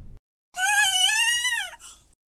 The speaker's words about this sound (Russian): And now a gibbon that's been breathing helium.